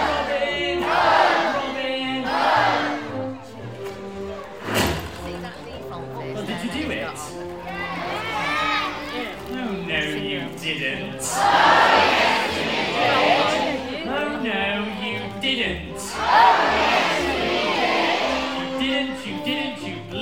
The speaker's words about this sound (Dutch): Ja, dus hij roept dan Robin en dan roept iedereen Hood. En dan moet je doen alsof je een pijl af, afschiet. Ja. Well, I say Robin and you say.